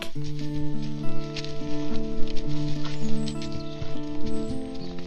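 Steady hoofbeats of horses being ridden through a forest clip-clop along at a walking pace, mixed in beneath sustained, gentle musical tones that hold throughout.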